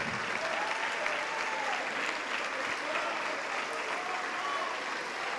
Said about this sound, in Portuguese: Vamos aplaudir, igreja.